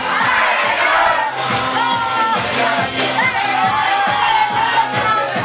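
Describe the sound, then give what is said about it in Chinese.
An audience shouts and cheers together on the speaker's call to shout once more, a loud, sustained roar lasting several seconds, with overlapping voices and whoops and a steady pulsing beat of music underneath. “来，再来一声。”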